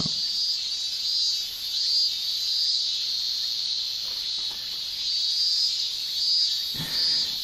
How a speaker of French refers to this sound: Et voilà un bal des cigales